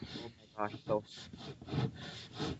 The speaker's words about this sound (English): I was rubbing my foot on the the leg of the,